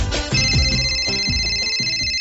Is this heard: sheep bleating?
no